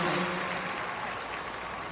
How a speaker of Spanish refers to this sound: Un fuerte aplauso, a ver. Vamos a llamarlo con las palmas a